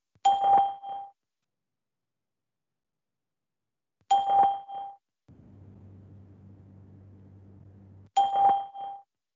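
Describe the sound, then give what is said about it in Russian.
Three short electronic chime-like beeps from the Skype call testing service ring out at even intervals about four seconds apart, each fading quickly, signalling the start of recording a message of up to 10 seconds; a low muffled droning sound fills the gap before the last beep. “После сигнала начнется запись вашего сообщения длительностью до 10 секунд.”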